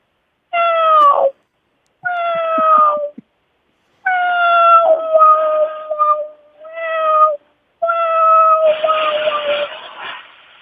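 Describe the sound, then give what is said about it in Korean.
A person imitates a cat begging for food and then eating, giving a series of drawn-out, pleading meows in five or six close, loud bursts separated by short pauses, with the last one breaking into a rougher, noisier tone. “처음에는 그 모, 아, 고양이 소리 하겠습니다. 일단 밥 달래는 밥 달래갖고 아, 먹는 그 고양이.”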